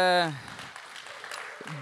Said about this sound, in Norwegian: Kanonbra, folkens. Skal vi gi dem en eh, skikkelig applaus?